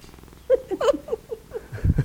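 A cat named Noah purring, with a series of short, rising trill-like bursts and a brief low rumble at the end, no one talking.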